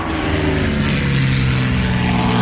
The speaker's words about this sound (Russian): Сделав круг над аэродромом, загруженный под завязку самолет на малой высоте уходит в неизвестность.